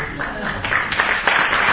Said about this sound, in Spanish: Y me aplauden mucho no